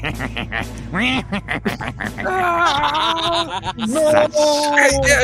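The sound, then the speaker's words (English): A person imitates a duck, letting out a quick string of loud, nasal quacks, the voice rising and wavering between bursts with a giggly edge. “His sadistic quacks echoed like a chorus no.”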